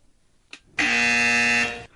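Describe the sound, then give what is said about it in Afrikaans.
A loud, sustained quiz buzzer blares for about a second, a steady harsh electronic tone rich in overtones, preceded by a brief faint click and then cutting off abruptly, as a contestant presses their button during a spelling quiz on loanwords. “En nou dat ek hierdie leidraad gegee het, kan julle dadelik julle knoppies mhm. druk as julle die leenwoord hoor.”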